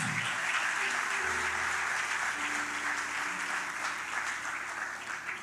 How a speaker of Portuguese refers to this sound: Glória a Deus, se é para aplaudir o Senhor, é para aplaudir de verdade.